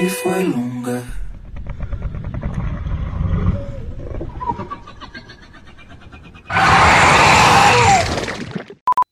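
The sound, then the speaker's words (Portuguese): A tape recorder chewing its tape: garbled, warbling sound with dragging, wobbling pitch, then a loud harsh burst of noise that cuts off with a couple of sharp clicks. “É o barulho do gravador. Entendeu? Pra Nossa, combinar, velho. porra. O gravador mascando a fita.”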